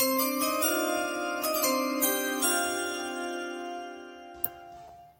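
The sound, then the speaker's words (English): A bright electronic draft chime plays a short melody of about five ringing notes in quick succession, each tone sustaining and overlapping before the whole sound slowly fades out, with no voices. “I can do the draft chime this year.”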